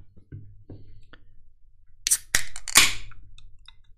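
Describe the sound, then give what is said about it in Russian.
A can of calamansi juice with cane sugar is cracked open: a few faint taps, then a sharp metallic snap of the tab followed by a short burst of fizzing hiss, with no voices. “не пустую банку.”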